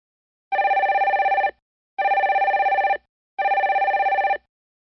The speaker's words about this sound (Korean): 이내 전화벨이 다시 울린다.